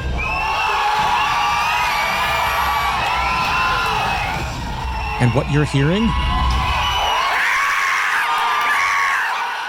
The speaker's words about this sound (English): Theater shaking cheers as every Marvel superhero from the studio's 22 movies over the past decade appears on screen. All together for the first time.